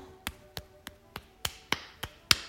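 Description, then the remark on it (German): A hand taps steadily down the inner side of the right arm in a self-tapping exercise, eight soft slaps at an even rhythm of roughly one every third of a second, with no talking. “Gehe nach innen und klopfe wieder nach unten.”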